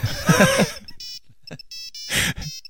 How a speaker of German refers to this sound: Wie so ein jamba spar klingelton